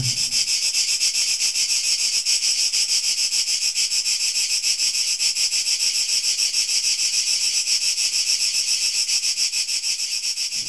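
Cicadas sing in a steady, dense chorus, a loud shimmering high-pitched buzz with a fine rapid pulse that holds unbroken throughout, with no voices present.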